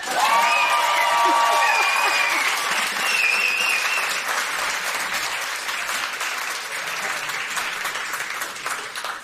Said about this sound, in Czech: Přesně tenhle aplaus Přichází gentlemani, přepište dějiny, přichází profesor Michal Stehlík. Teď aplaus! přichází doktor Groman. Aplaus!